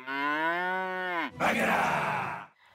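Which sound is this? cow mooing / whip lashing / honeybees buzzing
cow mooing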